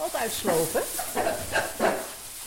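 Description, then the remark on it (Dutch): Happy piglets running around in a stable let out a rapid series of short, excited bark-like squeals, about five or six in quick succession, fairly loud over a faint hissing background. “Biggen blaffen dus, hè, als ze blij zijn.”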